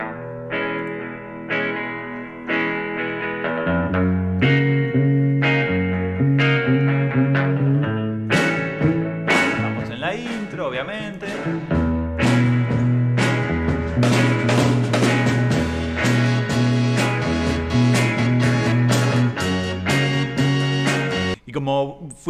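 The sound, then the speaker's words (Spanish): A 1960s-style beat rock intro from a 1967 Argentine rock nacional song: a sparse, pulsing guitar riff builds as instruments join one by one every two or four bars, swelling into a full, driving band groove with steady rhythmic chords. “una canción de 1967. Se la pone como una canción fundadora del rock nacional, ¿sí? ese, ese sonido beat de la, e-, la época.”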